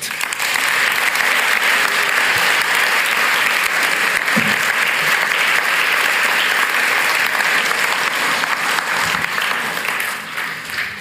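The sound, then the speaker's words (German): Sustained applause from a large audience thanking small-group leaders, loud and steady throughout with dense clapping, tapering slightly at the very end. “Ich möchte euch drinnen stellvertretend auch für alle anderen Kleingruppenleiter Danke sagen und auch noch Applaus geben.”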